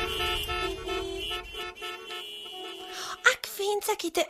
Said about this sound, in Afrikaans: Sy luister soggens vroeg en laat smiddag na die verkeer in die straat buite oupa se huis. Partykeer is die bestuurders van die motors, veral die taksies, ongeduldig en dan blaas hulle op hulle voertuie se toeters.